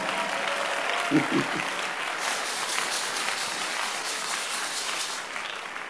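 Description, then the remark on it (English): An audience bursts into sustained applause, dense overlapping claps forming a steady, fairly loud wash that holds for several seconds with a brief voiced sound near the start. “Give yourself a clap of friend.”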